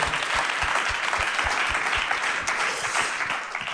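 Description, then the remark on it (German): Audience applause after a talk fills the whole clip, a dense, steady wash of clapping hands with a few sharper claps standing out, holding fairly loud throughout and easing slightly at the end. “Hey, und das ist ein Applaus.”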